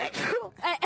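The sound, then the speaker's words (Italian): A loud, theatrical sneeze: a drawn-out, voiced wind-up of gasping breaths, then a sharp, short burst at the end. The sound comes alone, with no talking. “Salute! Appunto, te l'avevamo detto”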